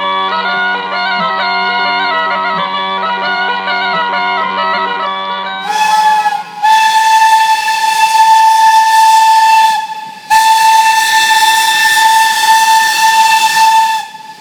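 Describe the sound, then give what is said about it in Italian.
A steam locomotive lets off loud blasts of its whistle over rushing, hissing steam, in two long bursts with a short break between, after a steady ringing tone at the start. “Questo viaggio comincia dallo sbuffo di una locomotiva, ma non farti ingannare.”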